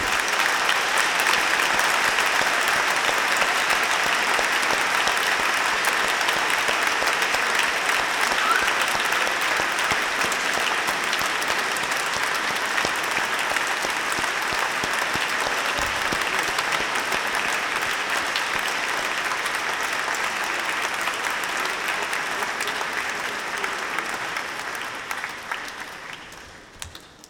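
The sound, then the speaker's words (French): An audience at Saint-Seurin applauds steadily for nearly half a minute, a dense, even wash of clapping that holds its level before tapering off in the final seconds. “Je crois qu'on peut en même temps les, les applaudir.”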